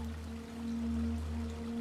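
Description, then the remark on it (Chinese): A quiet, steady wash of flowing water from a small, clear babbling stream in sunlight runs continuously with a soft, low droning hum underneath and no voices. “潺潺的小溪在阳光下澄澈、欢快的流动着。”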